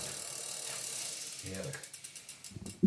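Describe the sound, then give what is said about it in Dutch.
An electronic 11-speed bicycle derailleur motor with a matte finish whirs and clicks through its gears, a steady mechanical ratcheting with a few sharper clicks at the end. “Ehm, ja, dit heeft dus een 11-speed motortje, zo noemen wij het.”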